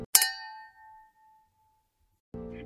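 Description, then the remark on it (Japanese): A single bright clink of cups knocked together in a toast with café latte and hotel water, ringing out with a high metallic tone that fades slowly over about a second, followed by silence and then a burst of voices. “はい、それで私はホテルであの水をいただいたので、それで乾杯していきたいと思います。”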